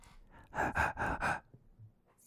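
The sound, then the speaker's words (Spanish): A voice imitates heavy breathing once heard in a bathroom, with four loud, breathy huffs in quick succession, followed by quiet. “y oía como una respiración.”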